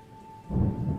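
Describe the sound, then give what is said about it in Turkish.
Heavy rain hisses steadily, then a deep roll of thunder swells in about halfway through and rumbles on under the downpour. No voices. “Yağmur bardaktan boşanırcasına yağıyor, çarşaf çarşaf yeryüzüne iniyormuş.”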